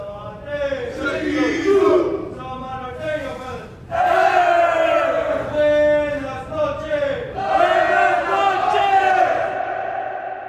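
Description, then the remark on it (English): A group of Samoan prison inmates chant and shout together in loud, sustained bursts in a prison reception unit around 10 o'clock at night, performing their nightly shutdown ritual, voices rising in unison with a rhythmic, call-and-response feel and some echo. “That's the Usos, the Samoan cats doing their shutdown.”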